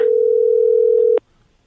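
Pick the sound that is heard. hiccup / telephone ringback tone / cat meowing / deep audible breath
telephone ringback tone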